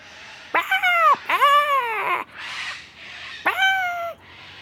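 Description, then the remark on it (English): A human voice imitates a sulphur-crested cockatoo's screech with three loud, raspy, harmonic squawks, the first two back to back and the third after a short pause, with no other talk. “Can you make the sound of a sulphur crested cockatoo up to some mischief? Give it a go with me.”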